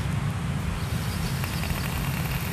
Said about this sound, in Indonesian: nah coba, oh iya coba gue tes coba ya. lu tes vape berisik nggak tuh coba nih